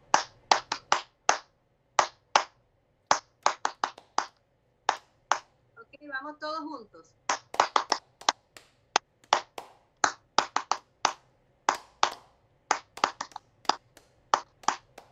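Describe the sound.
Rhythmic palm-to-palm, finger-to-finger hand clapping, done to activate acupressure points and as a brain-gym exercise, in quick bursts and steady runs, sharp and bright, with a brief spoken phrase breaking in midway.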